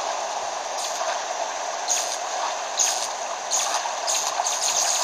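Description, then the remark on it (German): A steady roar of rushing water from a waterfall fills the scene, a dense continuous wash of sound with brief brighter hissing bursts rising over it every second or so. “Nee, hier ist ein Wasserfall.”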